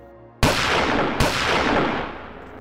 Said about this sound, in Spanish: entre lágrimas, como el cobarde que es, arremete y le da un disparo a cada uno.